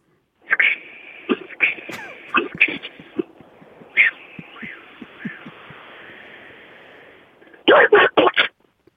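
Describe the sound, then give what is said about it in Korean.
As a warm-up impression, a voice imitates a noisy cicada's shrill buzz that sputters and breaks into choppy bursts, then ends in a few loud, strangled squawks as the cicada is caught and eaten by a bird. “자, 시끄럽게 울던 매미가 새한테 잡아먹는 소리 됩니까?”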